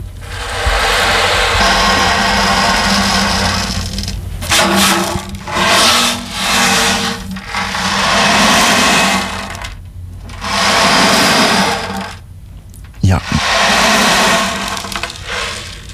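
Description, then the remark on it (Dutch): A small ocean drum is played, its rolling beads making loud hissing washes that swell and recede several times, imitating sea waves breaking and drawing back, with no voices. “zo boot je eigenlijk de golven na.”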